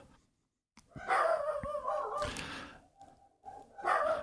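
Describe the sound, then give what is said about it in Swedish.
Dogs bark in a loud, excited burst of overlapping yaps and howls at a garbage truck arriving for the big autumn emptying of the bins, pausing briefly before another round starts up. “Där kom sopbilen om du undrar varför hundarna skäller”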